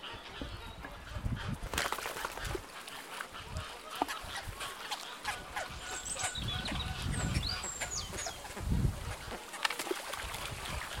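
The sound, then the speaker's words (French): A crowd of water birds, including roseate spoonbills and ibises, squawks and honks in a busy, overlapping clamour, scrabbling over fish thrown in handfuls onto a beach amid steady outdoor rustle and splashing, with a few sharp calls rising above. “Allez, bah, du coup, je vous laisse euh, prendre des poignées et, lancer le poisson euh, sur la plage pour, euh, pour nos amis les oiseaux d'eau.”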